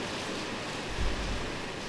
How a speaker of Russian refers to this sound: Шум, слышите? у меня тут начинается буря, страшный ливень. Ну ничего, я надеюсь, что меня не смоет.